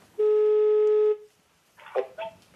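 telephone being dialed

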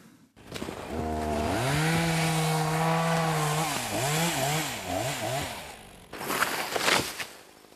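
chainsaw felling trees

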